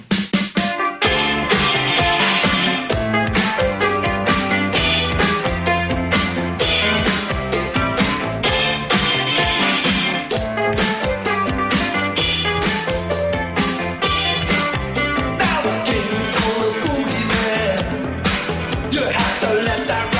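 A loud, full-band rock song plays steadily on the radio station BN Mallorca 106.5, with a driving drum beat, bright guitars and a bass line, continuous with no talking over it.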